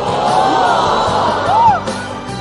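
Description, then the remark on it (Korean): A crowd of people oohs and exclaims together while a story is being told, overlapping voices rising into drawn-out, swooping vocal reactions that fill the whole short stretch at a steady, lively loudness. “지금 사연 얘기 중이니까 계속 옆에서 오 어, 좋겠다 오 어, 이렇게 조금 조금만 조용히 얘기해 주시면 고맙겠습니다.”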